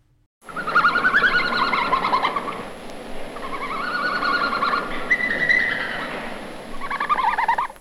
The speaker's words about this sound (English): Some of you may have guessed a bird, which is close, because it often gets mistaken for one. But that was a red panda. That's right, this week's animal sound is, was a red panda.